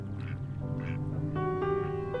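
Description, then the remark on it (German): Canadian ducks on the clear Walchensee lake quack in a few short, nasal bursts, then a longer, steadier honking call, loud over a low, constant background murmur. “Stundenlang sitzt er in seinem Boot auf dem Wasser und angelt, beobachtet dabei die Insekten oder die kanadischen Enten, denen man im glasklaren Walchensee auch beim Tauchen zuschauen kann.”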